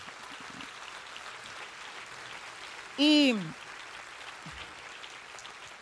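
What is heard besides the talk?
audience applause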